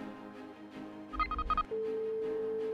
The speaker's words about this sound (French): Une sonnerie l'interrompt.